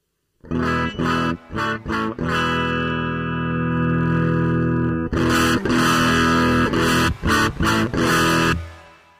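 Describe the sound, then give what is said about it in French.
Crunchy, overdriven electric guitar played through a microphone preamp pushed into saturation, its signal LED in the red zone: a few short chord stabs, one gritty chord left ringing, then a quick run of rhythmic chords, loud with no voices. “Voilà, et là le croustillant, il commence à arriver et là j'ai nettement basculé.”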